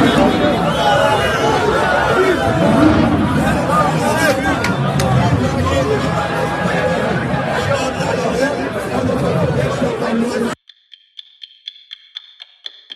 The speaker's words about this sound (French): Résistance encore des dizaines de personnes au Vieux-Port de Marseille pour dénoncer le couvre-feu. Liberté, scandent les manifestants. Écoutez.